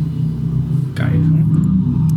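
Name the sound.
loud motorcycle passing by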